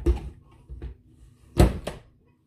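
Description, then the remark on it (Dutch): Half a fruit drops into a blender jar with a few hollow thuds, quiet knocks first and then a louder clunk followed by a softer one, with no talking. “Deze helft gaat de blender in.”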